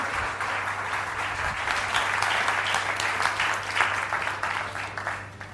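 An audience applauds steadily for several seconds, a dense crackle of many hands clapping at a fairly loud, even level that tapers slightly at the end.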